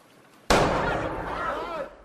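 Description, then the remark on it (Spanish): A single sharp champagne cork pops loudly as a bottle of champagne is opened after a moment of quiet, followed by a rushing, fizzy hiss that slowly fades over the next second or so. “Destapa una botella de champán.”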